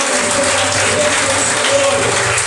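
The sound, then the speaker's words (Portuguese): A church audience applauds the Lord loudly and steadily with hands raised, a dense, continuous wash of clapping that fills the whole clip without breaks or a clear rhythm. “E você vai aplaudir mais forte o lugar do Senhor.”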